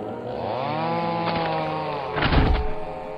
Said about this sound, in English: As my chainsaw rips through the forest meat, I scoff at myself for entertaining such a stupid thought.